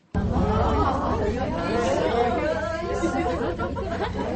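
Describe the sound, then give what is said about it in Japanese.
A crowd of excited passengers chatters and exclaims all at once inside a moving ropeway cabin as it passes a descending cabin at the midway point, voices overlapping loudly and continuously with a steady low rumble underneath. “で中間点で下ってくるロープウェイとすれ違う瞬間はこんな感じ。”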